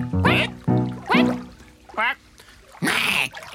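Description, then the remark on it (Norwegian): Several people mimic duck quacks with their voices: five short, nasal, honking bursts at uneven intervals, fairly loud, the last one harsher and more squawking. “Så lager vi et kvekk, og svekk for rekk et vekk.”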